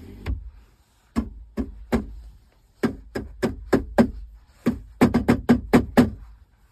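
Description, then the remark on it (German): Hollow knocks on the plastic center console trim on the passenger side: a single rap, then uneven clusters of two and three, ending in a quick run of about six sharp taps. No one speaks. “Und das klingt so plärrig plastikmäßig, dass ich echt gedacht habe, das kann doch nicht wahr sein.”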